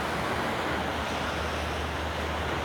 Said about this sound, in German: Ja, ich habe das Gefühl, dass das größtenteils äh, auf Wind hinausläuft. Heute ist es leider auch windiger als die letzten Tage.